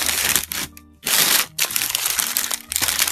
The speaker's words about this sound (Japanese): ということで、ご飯もぐもぐさせていただきます。すいません。ガサガサうるさいです。ごめんなさい。